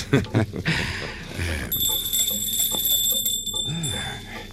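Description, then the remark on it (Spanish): A bright metallic hand bell rings with a sustained, shimmering tone for several seconds, after a short burst of voices and laughter at the start. “Jamás responde cuando toco la campana.”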